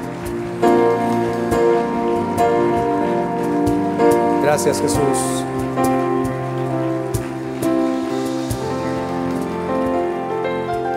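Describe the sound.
A church audience applauds steadily for about ten seconds, giving applause to God during a prayer, a dense patter of clapping over sustained, chord-like music, while a voice briefly speaks through it.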